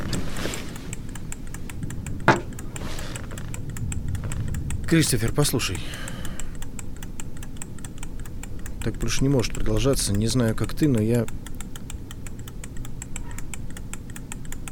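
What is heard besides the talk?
kitchen timer ticking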